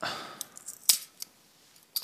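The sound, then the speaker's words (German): A swing-top Dittmarscher beer bottle being opened: a series of light, sharp clicks and snaps from the wire clasp, with one louder metallic snap partway through and no clear pop. No one speaks. “Lass uns doch mal kurz ein Bier aufmachen und anstoßen darauf”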